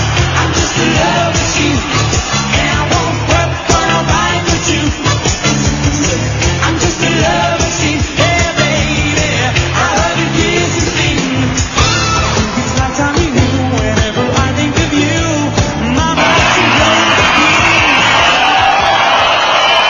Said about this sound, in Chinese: 给大家做精彩的表演，让我们以热烈掌声表示欢迎。